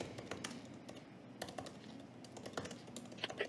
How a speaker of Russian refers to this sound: Пока вы печатаете